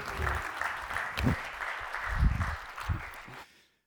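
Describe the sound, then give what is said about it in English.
An audience claps steadily for a few seconds for a church elder invited up to speak, dense, with a few low thumps mixed in, before the applause cuts off abruptly. “Let's give him a hand for a great job.”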